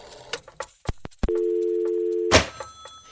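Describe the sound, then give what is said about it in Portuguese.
A woman alone at home calls a telephone number: a few sharp clicks and taps give way to a steady, droning dial tone lasting about a second, cut off by a brief burst of noise, then faint scattered clicks. “Até que liga para o número da primeira pessoa que lhe aparece com o nome completo.”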